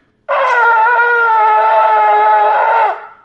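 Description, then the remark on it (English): A single sustained shofar tekiah blast holds one steady, loud, brassy tone for about two and a half seconds before cutting off, with no talking over it. “And therefore, that kia would be that length.”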